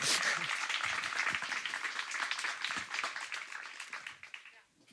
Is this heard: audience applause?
yes